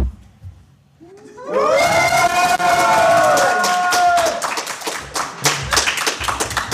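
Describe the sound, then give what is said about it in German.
A small audience of about seven people at the Mac in Erfurt lets out a rising, high-pitched cheer of "yay" that swells and holds, then breaks into steady, scattered clapping that continues loudly to the end. “Man will nicht der Einzige sein, der Yay dann sagt.”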